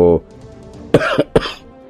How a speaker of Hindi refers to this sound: विक्रांत ने अपने हाथ में ली हुई सिगरेट को जलती गाड़ी से बाहर फेंक दिया उसके बाद फिर से खांसने लगा